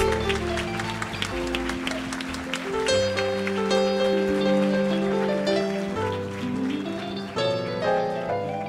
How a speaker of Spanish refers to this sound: Miren, denle un aplauso a todos estos niños, a todos estos padres.